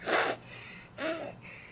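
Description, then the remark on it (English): A person imitates a one-year-old boy's heavy breathing with two loud, forceful huffs, separated by a short pause, with no talking. “starts heavy uh-huh. breathing, and then he starts like yelling at you in baby language”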